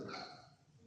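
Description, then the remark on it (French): A chair gives one short, whiny creak, a tonal squeak that starts fairly loud, then fades slightly over under a second. No one speaks. “C'est où ça C'est la chaise.”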